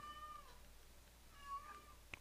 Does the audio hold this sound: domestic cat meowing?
yes